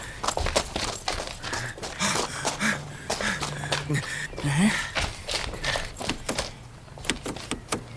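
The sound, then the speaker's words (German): The locked door handles of a white van are yanked again and again, a run of sharp metallic clacks and rattling clunks with no door swinging open, while a voice murmurs faintly underneath. “Die Türen sind alle verschlossen.”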